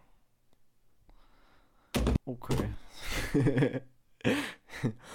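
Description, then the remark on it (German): A hand slaps down hard on a computer mouse, one loud thump after a quiet stretch, followed by people talking and reacting. “Ich habe einfach meine Maus geschlagen.”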